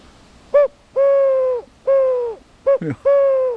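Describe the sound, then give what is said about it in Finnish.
A handheld bird call imitates a wood pigeon's cooing: a short note, two long steady hooting coos, a brief broken note, then another long coo. The calls are loud and heard alone. “Sepelkyyhky, aivan.”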